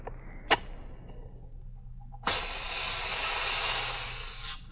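A sharp striking scrape, then after a brief pause a road flare ignites into a steady, loud, close hiss that continues to the end over faint background noise.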